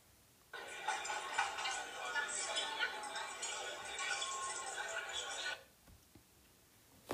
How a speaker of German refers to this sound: Dann laufen sie weiter durch die Stadt und an einem majestätischen Schloss vorbei. Dort hören sie die Menschen durcheinander plaudern.